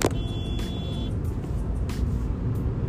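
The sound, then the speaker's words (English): Steady low rumble of a car in motion heard from inside the cabin, a continuous road drone with faint hiss and occasional brief higher swishes, no one speaking. “As you can tell, I'm multitasking. oh my goodness. I know when to slam on the brakes, those fuckers.”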